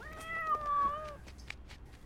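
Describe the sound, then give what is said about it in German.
A single drawn-out meow from a cat being played with in the evening using a laser pointer, lasting about a second, clear with a slightly wavering pitch, followed by near silence with faint background noise. “Eines Abends spielt er nach der Arbeit mit seiner Katze.”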